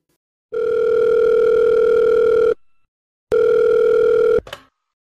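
telephone ringing tone

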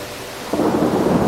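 rain with thunder

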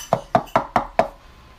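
knocking on a door

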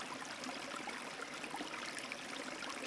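flowing river stream

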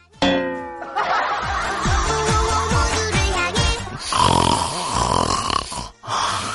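loud snoring

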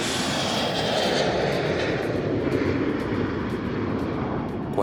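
airplane taking off

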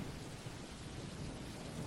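thunderstorm with heavy rain

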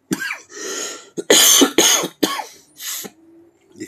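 coughing and throat clearing

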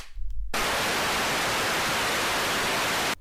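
television static noise

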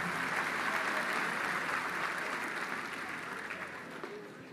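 audience applauding

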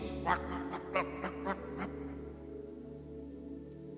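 ducks quacking

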